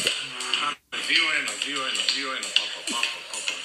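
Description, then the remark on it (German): Strange, tinny music plays from a mobile phone that switched on by itself while set to silent, with wavering, gliding tones over a hissy, bright background, briefly cutting out near the start before continuing steadily. “Was hörst du denn da für seltsame Musik?”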